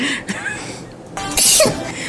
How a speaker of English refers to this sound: I am slightly sick this week. Um, the allergies have hit me hard. um, so, I'm going to apologize now for sniffling, projectile sneezing, and being absent during some of the discussion.